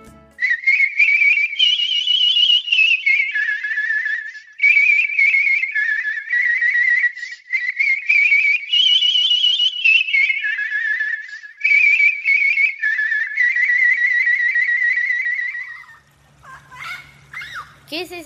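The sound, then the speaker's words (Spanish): Loreta, an old pet parrot, whistles a long, wavering, sad and melancholic tune, called the buccaneer's song, from a corner of a patio, the phrases gliding up and down with brief pauses, then trailing off into a few short squeaky chirps. “Ah, es Loreta, la vieja lora que trajo mi abuelo hace muchos años. Ya casi nunca silba.”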